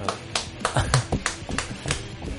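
A short burst of hand clapping from one or a few people for a father's birthday: sharp, irregular claps at a moderate level, with no voices.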